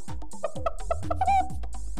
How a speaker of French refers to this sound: Alors les amis, vous aimez les animaux Écoutez la poule